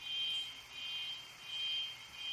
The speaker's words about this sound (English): Is that a jail siren? That's what I was thinking.